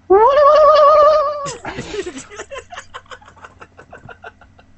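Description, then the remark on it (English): A single loud, drawn-out goat bleat with a shaky, wavering pitch, lasting just over a second, followed by bursts of people laughing. “I got the goat”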